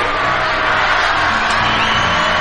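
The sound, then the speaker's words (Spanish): A large audience at a stage show shouts the chant "El que no salta es facho" together in a loud, continuous roar, many voices blending into a dense, sustained chant with no pauses. “Otro grito por excelencia de este país.”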